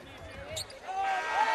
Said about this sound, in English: We'll throw it in and you'll hear the buzzer.